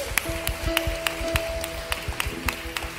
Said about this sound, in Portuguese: Você pode dar uma linda salva de palmas para Jesus?